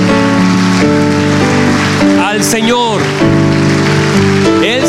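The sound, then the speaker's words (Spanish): An audience claps in a steady, dense wash of applause that runs the whole time, mixed with sustained musical tones and a voice speaking over it. “Dele un fuerte aplauso”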